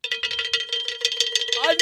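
A cowbell struck in a quick, steady rhythm of bright metallic clanks, about six or seven hits per second, loud and alone, ending with a brief upward-sliding ringing tone.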